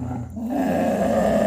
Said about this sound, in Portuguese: Então vi a panela no fogo, escutei aquele barulho horrível e em frente ao fogão, bem no meio da minha passagem para dentro de casa, havia um enorme cão negro rosnando para mim.